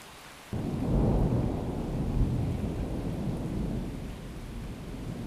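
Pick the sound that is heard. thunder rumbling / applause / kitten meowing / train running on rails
thunder rumbling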